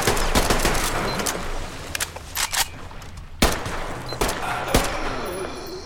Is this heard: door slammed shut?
no